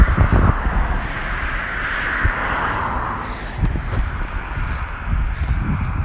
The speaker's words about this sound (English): and I'm aware when the car's going past that, um, you know, I'll try and not talk. Just so my voice doesn't get overridden by the sound of the cars.